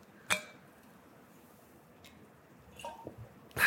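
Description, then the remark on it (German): A glass of water clinks sharply, then after a quiet pause come a few soft wet sips of water and small taps, ending with another bright clink as the glass is set down. “Schneller Schluck Wasser.”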